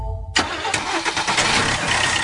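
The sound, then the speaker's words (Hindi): An engine cranks and catches after a short low rumble, then settles into a steady, loud running growl. No one speaks. “Phoenix लगा और भूल जा फिनिक्स लगा और भूल जा मोटरसाइकिल ट्रैक्टर या होगा चलेगी नहीं दौड़ेगी”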